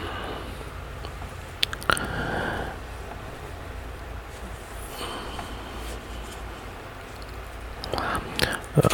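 Someone drinks water, with a few quiet sips and swallows spread across the pause, along with soft mouth and breathing noises and no talking.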